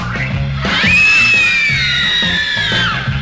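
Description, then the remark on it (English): A movie audience breaks into loud, high-pitched screaming, several voices overlapping in one sustained shriek for a couple of seconds, set over music with a steady thumping beat. “The next thing we know, everybody screams.”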